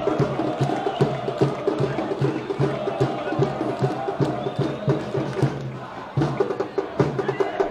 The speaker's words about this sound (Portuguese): Olha o primeiro escanteio da partida. Vamos melhorar essa batida. A torcida se empolga.